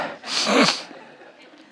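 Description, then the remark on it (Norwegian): A single loud, breathy nose blow on a stage, lasting about half a second, a rough, hissing burst of air, followed by quiet and a brief faint click at the end. “Jeg har gjort før på scenen og snyte meg.”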